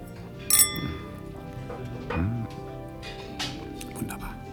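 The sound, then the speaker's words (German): Glasses clink together in a toast, a bright chime near the start followed by a few softer clinks, while voices murmur and talk in the background. “Zum Wohl.”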